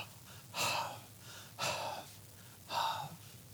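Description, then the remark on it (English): Three heavy, breathy pants, each a short rushing exhale spaced about a second apart, fairly loud, as a voice imitates panting to sound out the Hebrew word ahav, meaning love, with no talk in between. “Try saying it as if you were panting, and you will see what they mean.”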